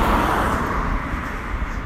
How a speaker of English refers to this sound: There was a, uh, I think it was an old Cadillac, just went past and it still had an American registration plate